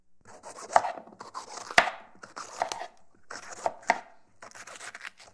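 A knife cuts four celery stalks into slices at a 45-degree angle in a series of crisp, crunchy chops, each with a sharp snap and a brief fibrous rasp, coming in uneven bursts with short pauses between. No one speaks.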